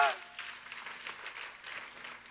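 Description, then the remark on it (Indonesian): A church audience claps for God during a sermon in a steady, dense patter of many hands, moderately loud and sustained, with a brief voice at the very start fading into the applause. “Tepuk tangannya boleh paling pria buat Tuhan kita.”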